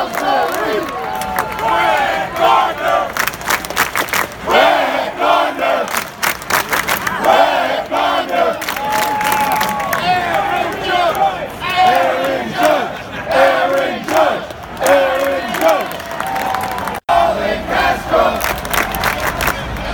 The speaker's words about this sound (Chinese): 如果他们刚好在守备，就是在刚好在专心的时候没有办法回应，那个球迷呢就会一直喊。喊到他回应为止，我觉得很很好玩。那其实我也有录这个 Bleacher Creature 的这个 Roll Call，大家可以来听一下。